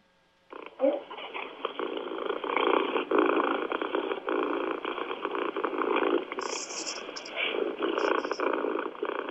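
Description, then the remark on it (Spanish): A domestic cat purring: a steady, rumbling, motor-like drone that starts after a brief silence and continues without pause, with a few faint higher crackles near the end. “Y aquí rápidamente ya les enseño, les enseño lo que pues muchos conocemos como el ronroneo, que es básicamente una muestra de eh, pues como de cachondeo, ¿no?”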